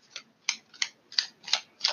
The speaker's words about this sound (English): So, I'm shuffling the modern witches tarot.